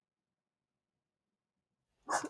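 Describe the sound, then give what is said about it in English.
Near-silence gives way to a single sharp, loud bark at the very end from agitated pet dogs, cut off abruptly. “Sorry, my dogs are like freaking out.”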